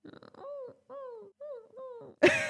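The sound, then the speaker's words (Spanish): A person imitates the high-pitched noise dogs make when happy, with four short, nasal, wavering cries in quick succession, ending in a sudden loud, noisy burst. “estaba haciendo ese ruido agudo que hacen los perros cuando están contentos”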